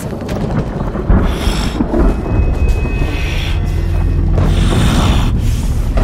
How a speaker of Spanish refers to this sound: ¡Trueno!